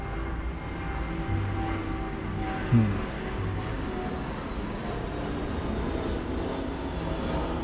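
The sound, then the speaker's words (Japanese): An airplane drones overhead, a steady low roar that holds evenly through the whole stretch, moderately loud and broad, with no voices over it. “あ、飛行機だ。”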